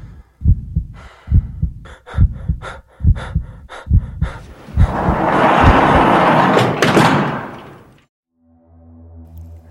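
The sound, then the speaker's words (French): A heavy prison cell door on death row grinds and slides open in a loud, rumbling rush, preceded by steady thudding heartbeats and followed by a low, droning hum. “Finalement, la porte s'ouvre sur la cellule de Tenshu Yashiro.”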